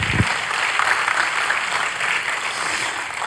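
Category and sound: crowd, audience applauding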